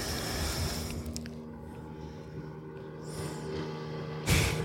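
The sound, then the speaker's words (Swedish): A Buster motorboat passing by, its engine droning steadily, a low rumble with faint mechanical whine over lapping water, ending in a brief louder splash or rush of air. “Det är den där Busterbåten.”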